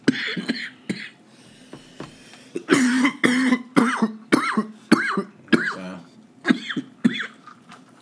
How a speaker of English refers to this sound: I'm on the mic coughing, but that's a move.